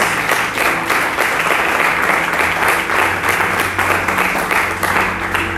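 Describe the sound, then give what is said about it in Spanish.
A church audience bursts into loud, sustained applause for God, dense overlapping claps filling the whole stretch at a steady level, with a faint low hum underneath and no talking. “Y denle un fuerte aplauso a nuestro Dios.”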